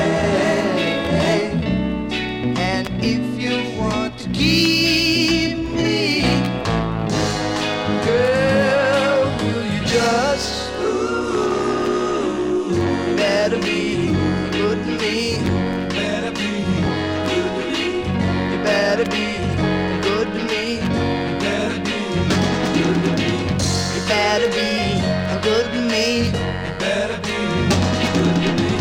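A 1960s pop song plays loud and close for the whole stretch, a full band backing lead vocals with harmonies, steady in level and rhythm from start to finish.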